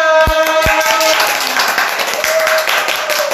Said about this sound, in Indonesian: Ya, kita ada 20 ribu orang di sini di iya. ruangan ini ya. Dengan tepuk tangan makanya rame banget. Rame, rame.